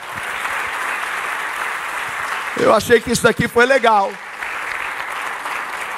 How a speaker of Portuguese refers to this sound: Pode aplaudir se você quiser.